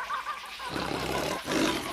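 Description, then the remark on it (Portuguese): A lion roars loudly, a rough, rumbling growl that swells, breaks briefly, then surges again over about two seconds with no voices. “Era uma vez um leão que vivia na floresta e a governava.”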